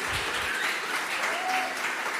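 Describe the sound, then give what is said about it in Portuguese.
A crowd at the Igreja no Cinema church claps for the Open House team in a dense, continuous wash of applause, loud and sustained for a couple of seconds, with faint voices mixed in underneath. “Pode dar uma salva de palmas bem forte.”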